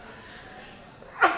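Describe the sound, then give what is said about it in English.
A single abrupt sneeze bursts out near the end after a low, quiet background, loud, with a sharp voiced onset that trails off quickly. “Excuse me. Bless you. Sorry.”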